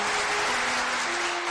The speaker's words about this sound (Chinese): 热烈的掌声响了起来。